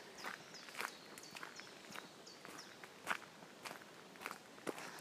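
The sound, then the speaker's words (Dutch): The speaker's own footsteps crunching on a pebble path, a steady walking rhythm of sharp, gritty steps, with faint birdsong chirping in the background. “Dat zijn mijn eigen voetstappen. En ik kies dan een kiezelpaadje uit.”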